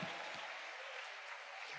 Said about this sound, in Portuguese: Aplauda com as mãos e glorifique com os lábios. Aleluia!